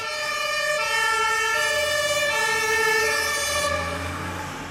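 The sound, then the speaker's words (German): A loud fire brigade siren wails steadily for several seconds as the engine heads to a fire somewhere, its bright, layered tone swelling and then easing slightly as it passes, over a low engine rumble. No one speaks. “Die Feuerwehr. Da brennt's irgendwo.”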